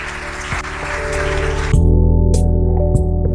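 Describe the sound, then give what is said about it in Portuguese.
A crowd claps loudly for Jesus at the end of a sermon, a dense, steady patter for under two seconds, then sustained musical tones take over and the clapping drops away. “Você pode aplaudir bem forte a ele?”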